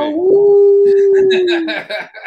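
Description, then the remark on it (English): A person lets out a long, loud howl imitating a hound, holding a steady note for over a second before it sags and trails off as other voices chatter over the end. “it was appropriate because I felt like this forlorn energy within the howl.”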